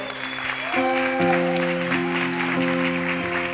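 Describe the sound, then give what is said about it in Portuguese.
A crowd claps steadily throughout, a dense, lively wash of applause with sustained keyboard chords playing underneath. “Uma salva de palmas aí, gente, por favor.”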